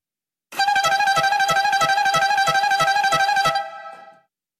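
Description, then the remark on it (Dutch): A loud horn toots in a fast, steady rhythm of repeated blasts for about three seconds to mark the start of the Tour de France, then fades out. No one speaks. “En toeter om in de stemming te komen, want de tour is begonnen.”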